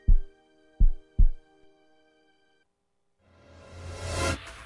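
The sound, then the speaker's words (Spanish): Three deep, booming heartbeat thumps ring out over a sustained tonal drone, followed by a pause and then a swelling, noisy whoosh that builds louder toward the end. “Escucha a tu corazón.”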